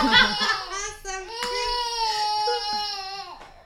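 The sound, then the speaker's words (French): A baby boy cries and fusses, a strained, wavering wail with sharp breaks and rising pitch, sustained over a few seconds before trailing off. “Mais alors Lola qui croit que si elle met son doigt dans la bouche de son fils, ça va le calmer.”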